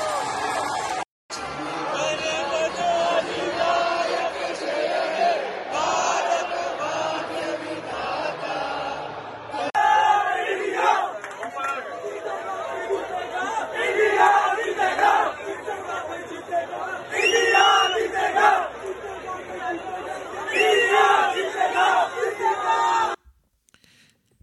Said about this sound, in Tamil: கோஷத்தெல்லாம் கேட்டிங்கல்ல around ninety thousand fans Melbourne ஸ்டேடியத்துக்குள்ளே இறங்கியிருக்காங்க ஒரே கூச்சலும் கும்மாளமும் தான் ட்ரெயின்லேருந்தே ஆரம்பிச்சிட்டாங்களாம்